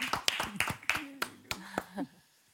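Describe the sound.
Brief, sparse applause on a TV studio set welcoming four young boys as they arrive: about eight sharp, irregular claps over a couple of seconds, with voices talking and murmuring underneath before the clapping fades out.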